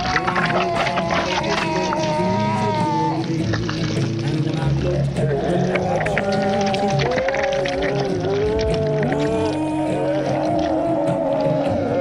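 A werewolf sound effect: loud, continuous moaning howls and growls that glide up and down in pitch, layered over a rough, rumbling background.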